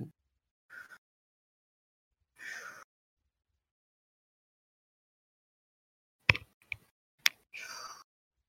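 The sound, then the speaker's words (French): A voice imitates sea waves to create a beach ambience, with short, soft breathy hisses separated by quiet gaps, with a few sharp clicks near the end before one last whooshing swell. No speech. “Ah, je commence à entendre un peu de vagues c'est pas mal ça.”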